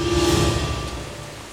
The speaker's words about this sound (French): à la tombée du jour, alors qu'il s'assoit au pied d'un arbre pour passer la nuit, une pluie diluvienne s'abat sur lui.